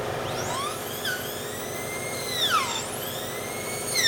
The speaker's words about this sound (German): In deutschen Zahnarztpraxen ging es in den 60er Jahren noch rustikaler zu. Die Turbinenbohrmaschinen wurden mit einem Druckluftkompressor betrieben.